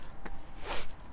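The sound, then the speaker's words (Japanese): A cicada drones at night in a continuous, high-pitched buzz that holds steady throughout, with a couple of faint soft rustles underneath and no voices. “夜ゼミ夜夜の夜夜のゼミ確かセミって夜間も活動するんでしたっけかそうでしたっけかそうでしたっけ”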